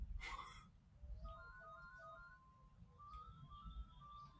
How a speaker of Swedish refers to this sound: The Entertainer på någons gamla telefon här och ekar över hela det grannskapet